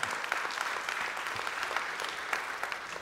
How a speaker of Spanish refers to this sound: Es por eso que, eh, sí, sí, de vez en cuando, denle un aplauso al Señor.